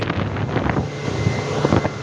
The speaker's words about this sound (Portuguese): Mas aí, por sorte, ainda na voadeira, e apesar da gritaria do motor de popa de 150 kp,